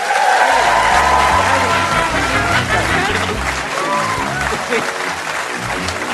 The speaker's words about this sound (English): Uh, so, will you please give a massive round of applause to my guest, Sarah Millican, ladies and gentlemen.